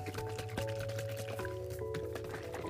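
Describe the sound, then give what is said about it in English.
Powder from an energy drink stick poured into a bottle of Fiji water, with soft liquid sloshing and a few small drips over a steady low background hum, no one talking. “I just put my my energy stick into my Fiji water, and Let's see how this shit goes.”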